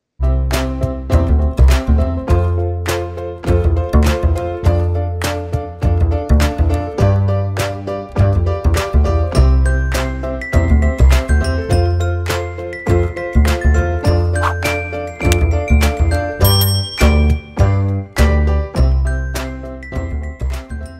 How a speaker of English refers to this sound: So uh, we'll quickly jump to our intro jingle, and then we'll hear from our guests.